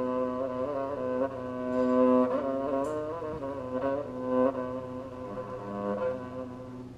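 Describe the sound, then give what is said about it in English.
A rebab is bowed in a low, buzzy register, its rich sustained tone, produced mostly by the vibration of its skin, gliding between a few pitches with slight swells in loudness for several seconds, alone. “not this instrument, the specific instrument, I mean the rebab”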